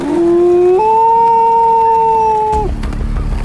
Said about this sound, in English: But everything seems okay until they hear a howl.